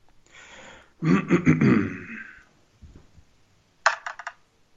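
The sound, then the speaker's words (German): Dice are rolled to pick a topic, clattering and tumbling across a hard surface in a loud flurry of rapid clicks, followed after a short pause by a brief second burst of sharp ticks as they settle. “ähm, äh, komm, würfel doch mal.”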